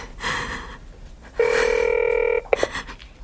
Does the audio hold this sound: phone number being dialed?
yes